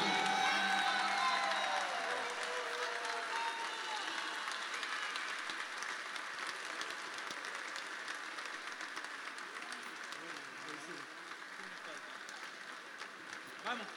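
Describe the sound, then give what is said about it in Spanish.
At the Cantapueblo Panamá 2018 choir festival, a crowd applauds the international choirs steadily for the whole stretch, a dense wash of clapping with a few cheers and whoops on top, loudest at the start and easing slightly toward the end. “Le pido un último y fuerte aplauso para nuestros coros internacionales y nos vemos en Cantapueblo 2019.”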